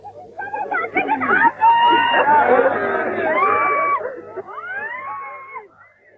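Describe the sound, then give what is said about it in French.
A loud crowd of many voices at a funeral after a shooting, wailing, crying out and calling together in overlapping rising and falling tones, sustained for several seconds over a low steady hum before thinning out. “Après la fusillade, l'enterrement.”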